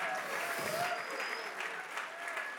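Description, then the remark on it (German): An audience at an Ecclesia Church service applauds their friends in Erlangen, a dense wash of many hands clapping at an even, fairly loud level throughout, with a few faint whistles rising above it. “Wir sind eigentlich eine, Kirche an zwei Standorten und lass uns nochmal unseren Freunden in Erlangen auch nochmal einen riesen Applaus geben.”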